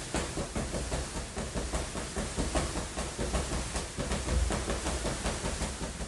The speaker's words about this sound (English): That a noisy balloon.